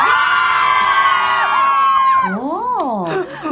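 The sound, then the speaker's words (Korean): A loud crowd of fans cheers and screams together at a radio open studio, high excited voices blending into a dense roar, with a few rising and falling whoops near the end. “소리 질러!”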